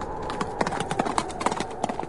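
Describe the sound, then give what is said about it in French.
A horse gallops, its hooves striking in quick, uneven clusters of hollow clops over a soft steady hiss, with no voices. “Et il galope jusqu'au pays du vent glacé.”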